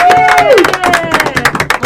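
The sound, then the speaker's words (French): A small group in a radio studio claps in a quick, irregular patter, moderately loud, welcoming a woman entering the studio for her first segment, with a brief voice-like tone sliding downward near the start. “On l'applaudit de façon banale alors qu'elle fait sa première chronique.”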